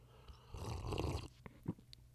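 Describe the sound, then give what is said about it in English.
A soft, breathy slurp of someone sipping coffee lasting under a second, followed by a few faint swallowing clicks and a brief tap, with no talking. “I need another sip of coffee.”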